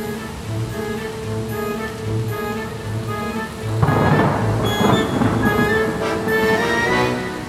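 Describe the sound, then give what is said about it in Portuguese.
A steady wash of heavy rain with low rumbling, and a louder burst of thunder swelling midway, over a sustained droning tone: a storm in which small torpedo planes take off from the aircraft carrier Ark Royal. “Os pequenos aviões decolaram do Ark Royal em meio a um temporal.”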